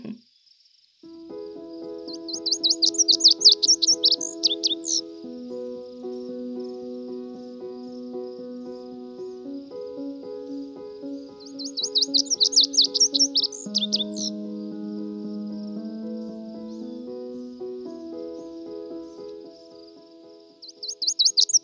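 A snow bunting (Plectrophenax nivalis), a small black-and-white bird, sings a bright, buzzy warbling song in three short bursts spaced several seconds apart, over a steady, soft, low humming tonal backdrop.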